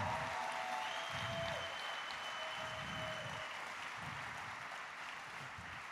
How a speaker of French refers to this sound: est-ce que les jeunes dans la foi, on peut applaudir les pères et les mères? Est-ce qu'on peut dire merci Seigneur?